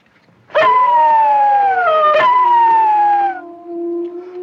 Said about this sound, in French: Qu'est-ce que c'est Eh ben, c'est des loups. Des loups à Paris, tu te fous de moi, non on est à côté du jardin des plantes. Ils sentent la viande.